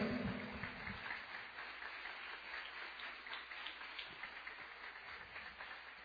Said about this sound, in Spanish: Y un aplauso a Dios grande, déselo, grande, déselo.